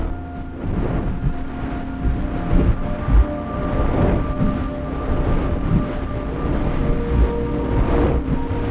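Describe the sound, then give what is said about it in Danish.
Loud, continuous rushing wind roars and buffets steadily past the ears, like violent storm wind, heard while falling through the air during a jump, with gusty surges and a low rumbling undertone. “Lyden er en, en voldsom vind, som hvis man er i stormvær, ikke?”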